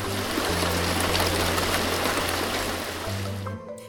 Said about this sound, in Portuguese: O Billy preocupava-se com as nuvens. E chuva.